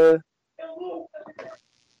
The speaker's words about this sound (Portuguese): Caralho, dá pra ouvir os caras gritando agora aqui. É muito bom, né? A pessoa tá acontecendo uma coisa aqui, tá acontecendo uma briga, e a pessoa some, né?